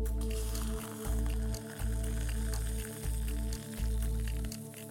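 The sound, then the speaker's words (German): Hot water pours steadily in loud streams with a dull running rumble onto instant coffee, briefly interrupted several times as it moves from one to the next of three cups; no one speaks. “So, heißes Wasser”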